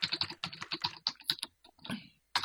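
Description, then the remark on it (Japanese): Rapid clicking of keys on a computer keyboard, a dense burst of typing that pauses briefly, resumes with a few more strokes, then ends with a final tap. Close and fairly quiet, no talking. “もう一回書くと、あれ。”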